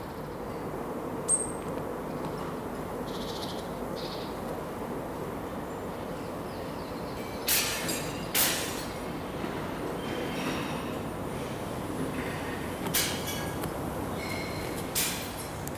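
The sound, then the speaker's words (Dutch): A steady roar of ring road traffic fills the background without letup, heard from a small park on Michelangelostraat on 16 January 2020, broken now and then by a few brief, sharp sounds and faint high chirps. “En op de achtergrond hoor je het lawaai van de rondweg.”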